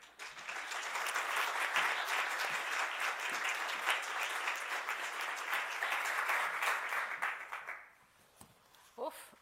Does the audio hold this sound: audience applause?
yes